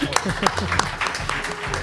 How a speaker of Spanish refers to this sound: Muy bien, muy bien, un aplauso para ella.